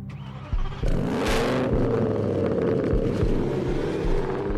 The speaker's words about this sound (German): Junge Männer, die ihre ganze Freizeit damit verbringen, ihre recht luxuriösen Autos aufzufrisieren, tiefer zu legen, sie mit glitzeriger Folie zu überziehen oder das Geräusch vom Auspuff aufzuschrauben.